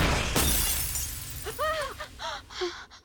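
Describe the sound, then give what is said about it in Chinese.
Glass shatters with one sharp, bright crash, in a TV scene where the shards cut the character Dottie's palm, followed by a few scattered, high ringing tinkles as pieces settle. No voices are heard. “玻璃碎片割破了多蒂的手掌，鲜红的血液格外扎眼，却又被多蒂以一个段子翻了篇。”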